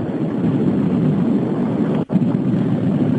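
A steady, droning rumble of a car on the move comes through a radio call-in phone line from a caller in Cape Town who is driving, loud and continuous, with a brief dropout near the end and no one speaking.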